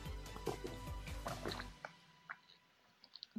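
Water pours into a glass for nearly two seconds with a bubbly, gurgling rush, then stops, followed by a few scattered drips and small clinks in near silence.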